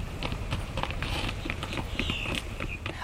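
Horse hooves clip-clop in a steady, brisk rhythm of sharp knocks as a rider heads home, with a faint higher whistling tone drifting in partway through and no one speaking.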